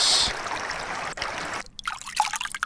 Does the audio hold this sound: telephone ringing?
no